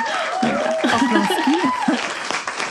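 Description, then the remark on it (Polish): A woman claps steadily for herself for a few seconds, a fairly loud patter of hand claps, while she talks and chuckles over it. “więc no mam takie, sama, sama sobie biję brawo, że byłam taka w ogóle.”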